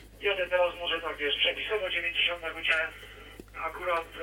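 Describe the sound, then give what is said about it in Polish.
The voice of an amateur radio operator riding a motorcycle at about 90 km/h comes through a narrow, tinny digital radio link, relayed through a mobile phone Wi-Fi hotspot, over a steady low hum, with a brief drop-out caused by his movement cutting the signal near the end before the talk resumes. “i te drobne przerwy, które, tutaj słyszymy, wiążą się w dużej mierze z tym, że kolega przemieszcza się, jak powiedział, z prędkością około 90 km na godzinę”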